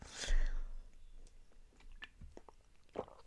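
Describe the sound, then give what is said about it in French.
A quiet small sip of water taken before speaking: a soft slurp at the start, followed by faint wet mouth clicks and a small swallow, with no talking. “je vais prendre une petite gorgée d'eau juste avant.”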